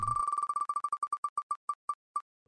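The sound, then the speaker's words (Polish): A prize wheel spins with rapid tonal ticks that gradually slow and spread apart until the wheel nearly stops, clear with no voices. “Czyli kręcimy kołem.”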